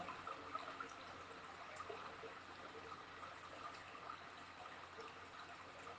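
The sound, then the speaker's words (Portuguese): A small stream trickles and babbles steadily throughout, a continuous soft wash of running water with tiny splashes and gurgles, fairly quiet, with no voices. “Ouço o barulhinho da água.”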